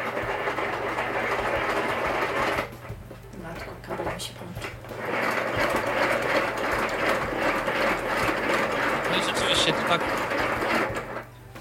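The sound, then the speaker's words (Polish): A small hand-cranked kitchen mixer, which needs no plugging in, whirs and rattles steadily as it is turned in a demonstration, pausing briefly partway through before the cranking resumes at a similar even, mechanical pace. “Wtedy, no kiedy może pokażę, jak to się jeszcze... kręci. Tak, wtedy kiedy miksera się jeszcze nie opłaca, ale z drugiej strony mieszanie łyżką jest za długo.”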